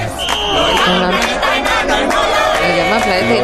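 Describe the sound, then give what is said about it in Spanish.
A crowd of protesters in support of Pluto chants and shouts loudly and steadily, spelling out and repeating "Plutón", many voices overlapping in rhythmic bursts with rising and falling pitch throughout. “Parece que son muy partidarios de Plutón estos manifestantes.”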